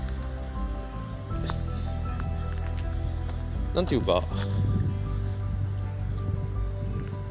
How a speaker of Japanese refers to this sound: 今日風強くてごめんなさい聞こえるかな